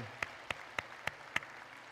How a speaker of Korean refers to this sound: 우리 주님 앞에 감사의 박수 올려드리겠습니다.